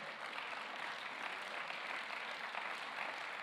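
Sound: polite audience applause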